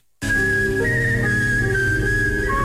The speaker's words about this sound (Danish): i Ukraine, der har de en kæmpe talentmasse, når det gælder kunsten at fløjte. Prøv at høre ham her.